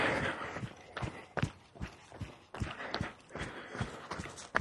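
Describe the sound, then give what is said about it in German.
Steady footsteps of someone walking at an even pace, around ten crisp scuffing steps about half a second apart, over a constant rushing background hiss with no talking. “Ja, aber ich kann weiterlaufen und ich laufe auch gerade weiter, wie ihr auch hört.”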